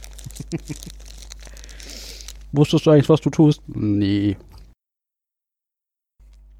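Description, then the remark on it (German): Game pieces rustle and clatter inside a plastic bag for a couple of seconds, a crinkly, clicking jumble, followed by two people exchanging a few words. “So klingt übrigens das Spielmaterial, wenn es in einer Tüte verpackt ist.”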